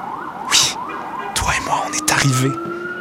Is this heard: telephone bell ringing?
no